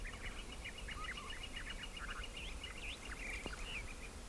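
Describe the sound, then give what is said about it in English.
Gila woodpecker and gilded flicker calls at sunrise at Organ Pipe National Monument, a rapid series of sharp, repeated chirps and churrs over a steady background hiss, with no one speaking. “Those are Gila woodpeckers, and that's a gilded flicker.”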